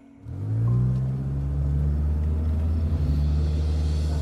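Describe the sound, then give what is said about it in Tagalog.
A car engine rumbles steadily after a quick start, its low, continuous drone heard as the car drives home at a constant, fairly loud level with no voices. “Kaya napilitan kaming sumakay uli sa kotse at umuwi.”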